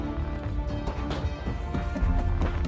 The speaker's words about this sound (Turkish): Oradan oraya koşuşturan adım sesleri rutubetli depoların duvarlarında yankılanıyor.